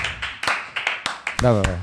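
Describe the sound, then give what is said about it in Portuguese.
A short run of sharp, fairly loud claps at an uneven pace, roughly eight or nine hits in under two seconds, with a voice starting up near the end. “Cadê minhas palmas, diretor?”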